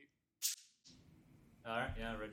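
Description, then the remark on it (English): One loud, sharp hand clap cracks, like a wooden clapper snapping shut. A short quiet follows, then a voice starts talking. “Actually, sounded like a like that clapper.”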